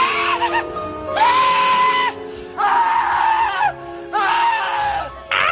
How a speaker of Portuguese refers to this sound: Esse filme... aquele grito dele...